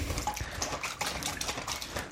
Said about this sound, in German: Plätscher, Plätscher.